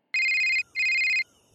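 A phone ringtone trills in two loud electronic bursts, a steady high-pitched tone with a rapid warble, separated by a brief pause and sounding alone without any talk.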